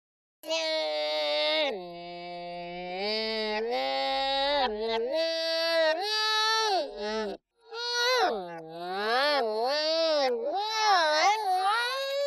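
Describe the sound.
A continuous, high-pitched warbling voice-like mumble, edited to recreate a noise by pitching up a drunk, mumbling man's voice and warping the speed back and forth, its pitch sliding and wobbling up and down, sounding like garbled, whiny babbling with a brief gap partway through.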